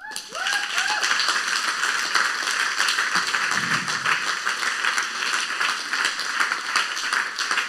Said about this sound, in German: Das sind eure Leiter, die stehen für ICF Singen. Ich finde, sie haben einen Applaus verdient.